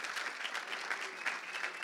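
Steady audience applause, a dense wash of many hands clapping at an even, fairly loud level throughout, with no voices standing out above it.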